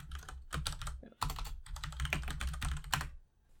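Rapid typing on a clacky computer keyboard as someone looks something up, a dense run of sharp keystrokes with a brief pause near the middle, then trailing off at the end. No voices.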